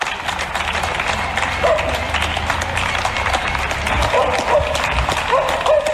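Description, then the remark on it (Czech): A crowd of citizens applauds politician Hana Lipovská steadily for the whole stretch. It is a dense, loud wash of many hands clapping, with a few brief voices or whistles rising above it toward the end. “Nikdo nemyslí na občany tolik jako občanka Lipovská a občané jí tleskají.”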